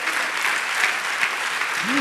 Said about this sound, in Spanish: Porque no le da una fuerte de palmas al Señor por su misericordia.